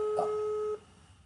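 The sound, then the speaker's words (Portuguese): A steady two-note electronic call tone from a mobile phone placing a call, one low and one higher pitch sounding together, holds for under a second and then cuts off, leaving a faint hiss; no one speaks. “Vou ligar aqui do, do meu celular, olha só.”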